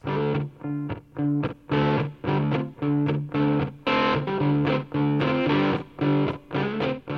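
A rock song with heavily distorted electric guitar playing choppy, rhythmic chords in short punchy bursts, loud and upfront, with no vocals in this stretch.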